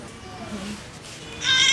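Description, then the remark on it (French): An infant girl weighing 6 kg bursts into a loud, high-pitched wailing cry at the very end as she is measured for height (66 cm), following a stretch of quiet background and a low adult voice speaking briefly. “Ça l'a fait crier, hein 66, la taille, 66 cm.”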